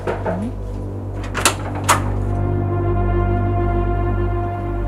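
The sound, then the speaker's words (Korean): A house door is opened by a mother with a short squeak followed by two sharp clunks of the latch and frame, then a steady low hum lingers with no one speaking. “뭐 금방 문을 열어주시긴 했어요?”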